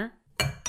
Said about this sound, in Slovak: O, dolívaš si vinko? Mali by sme si znova štrngnúť, čo? Počkaj, ja si štrngnem o kvetináč, ja mám sklenený kvetináč a bude to aj snadne. Ja o iPad. Je 3, 2, 1.